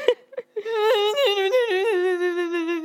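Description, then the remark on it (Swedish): A voice imitates sobbing while trying to speak, holding back tears, a sustained wavering, strained whimper with quivering pitch breaks, preceded by a few short gasping catches of breath, fairly loud. “Alltså, jag är man försöker ju liksom hålla gråten medan man pratar men så, ja.”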